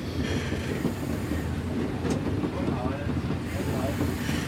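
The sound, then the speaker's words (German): A 1934 express locomotive of a historic railway in Frankfurt rolls onto the coaling track to load coal: a steady heavy rumble with rattling wheel clatter and a brief sharp metallic squeal near the middle. “Wir fahren jetzt auf dem aufs Grubengleis und äh, laden dann Kohle.”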